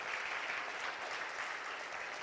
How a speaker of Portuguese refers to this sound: Se é para o Senhor, aplauda mesmo com entusiasmo, muito entusiasmo, muito entusiasmo.